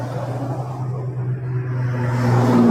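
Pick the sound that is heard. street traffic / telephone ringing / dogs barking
street traffic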